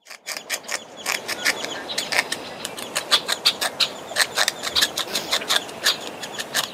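A beaver gnaws steadily on wood, producing a fast series of sharp, scraping crunches in irregular bursts with brief pauses between. No voices are present.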